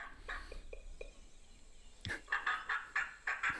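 A turkey gobbles, a few short clucking notes first and then a loud, rapid rattle of throaty, warbling pulses, with no talking.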